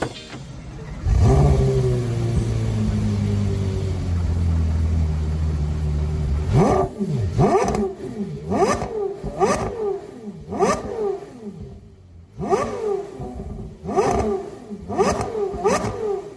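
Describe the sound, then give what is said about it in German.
A car's high-revving V10 engine starts and idles with a deep rumble, then is revved sharply in a series of about ten quick, loud blips, each rising and falling in pitch, with no talking. “Und das Ganze findet statt mit einem weiteren Fahrzeug dass wir auf unserer Sommertour gefahren sind.”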